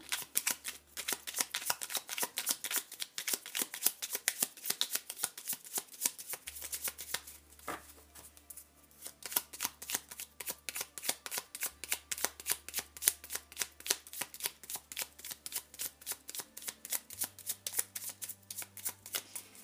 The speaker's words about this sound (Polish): I jeszcze tutaj wybiorę, wylosuję kartę anielskich kluczy, poradę